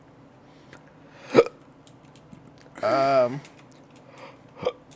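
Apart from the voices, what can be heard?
burping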